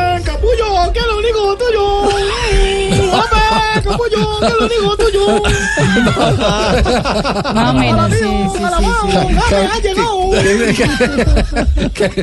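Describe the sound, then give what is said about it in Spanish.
A crowd of excited Bayern Munich fans in China shrieks and screams continuously while waiting for the players, notably James Rodríguez, many high-pitched voices overlapping in a loud frenzy with shouts rising and falling throughout. “lo que parece gritos, sí son gritos de, de todos eh, los, aficionados del Bayern Múnich que hay en, Asia, en China, esperando a los jugadores.”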